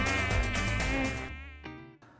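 insect, mosquito buzzing

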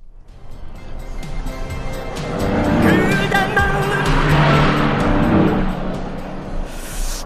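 vehicle, car passing by

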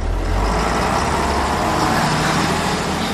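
vehicle, bus passing by

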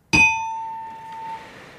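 signal or alarm, correct-answer ding-dong chime

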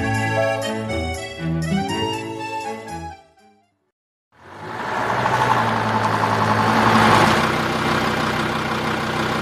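vehicle, car engine running

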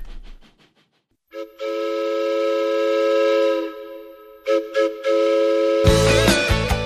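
sound effect, train whistle sound effect

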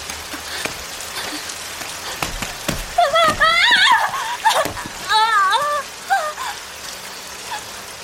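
nature, rain falling

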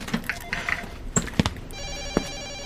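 signal or alarm, telephone ringing

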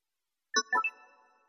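signal or alarm, message notification chime

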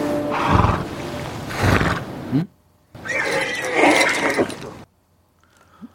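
animal, horse neighing

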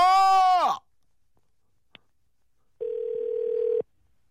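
signal or alarm, telephone ringing tone

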